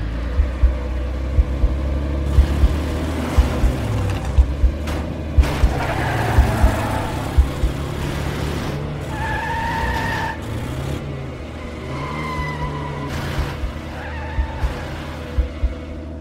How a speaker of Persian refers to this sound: ماشین رو زد تو دنده همین که در ماشین رو باز کردیم و نشستیم قبل از اینکه در رو ببندیم گازش رو گرفت و راه افتاد